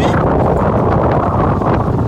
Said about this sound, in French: Un vent de malade de face